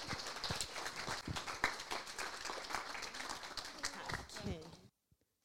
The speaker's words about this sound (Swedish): Var är du? Där! Varsågod. En applåd.